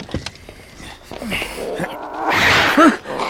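A tomcat meows a few times inside a car, short drawn-out yowls spaced apart, with some rustling and a brief burst of hissy noise near the end.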